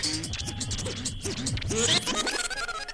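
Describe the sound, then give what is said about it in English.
A DJ does a rewind, scratching a record back and forth in quick rapid strokes, the sharp whooshing squeals rising and falling in pitch, loud, ending in a brief fast flurry of scratches. “Nah, rewind.”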